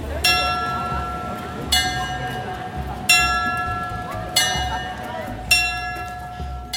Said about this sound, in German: Das gleiche Bild wie fast zu jeder vollen Stunde. Vor dem Zeitglocken haben sich zahlreiche Touristinnen und Touristen in Position gebracht, das Handy schon parat in Hang, um das weltberühmte Glockenspiel auch ja nicht zu verpassen.